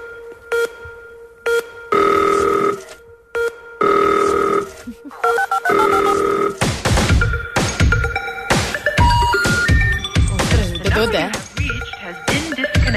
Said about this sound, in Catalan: Hi ha tota la cançó és que fins i tot hi ha un solo de telèfon, atenció.